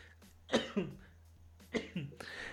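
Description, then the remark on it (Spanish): Two harsh coughing fits from a person who choked on water, each a quick double cough with a rough, throat-clearing edge, separated by about a second of quiet room hiss. “Es que tomé agua y se me, se me atoró, güey.”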